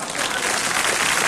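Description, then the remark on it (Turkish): A short burst of steady applause in Marmaris for a motorcyclist wearing a half helmet, dense and loud, with many hands clapping together and no voices standing out. “Evet bir, yarım kask ama olsun yarım da olsa takmış yani alkışlar dayıya gelsin.”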